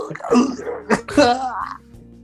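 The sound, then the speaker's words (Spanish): A voice makes a quick throaty cough-like noise, two short harsh bursts, imitating a cough rather than a real one, then trails off into quiet. “weón, tú toses y fuiste.”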